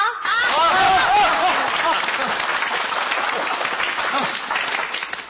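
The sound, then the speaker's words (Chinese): A crowd at a contest breaks into steady, dense applause to welcome the special guest Constable Xing to give a speech, holding at an even level for about five seconds, with a few brief voices or laughs rising over the clapping near the start. “下面有请这次大赛的特邀嘉宾邢捕头致辞，再次鼓掌。”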